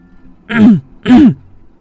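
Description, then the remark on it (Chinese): Two deliberate throat clearings in a row at night, around two o'clock, from a person in bed signaling that they are awake. Each is a short, rough, voiced "ahem" with a gravelly low rasp, separated by a brief pause and standing alone against near silence. “的清了清嗓子，想告诉那人我还醒着”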